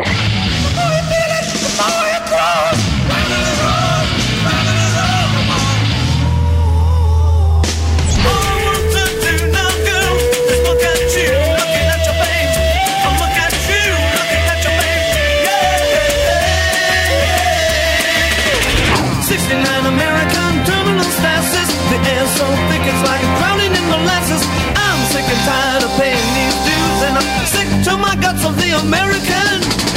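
Loud, raw 1960s punk hard rock from a five-piece Detroit band: dense distorted guitars, pounding drums and a wailing sustained lead line, with abrupt section changes partway through.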